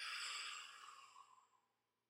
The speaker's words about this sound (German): Wir atmen ein in drei, zwei, eins. Halten. Und wir atmen aus.